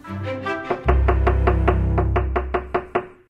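A series of sharp knocks on a door, about a dozen in a fairly quick, steady rhythm, clear, with a low hum underneath and no voices. One of two people who have arrived at the door knocks.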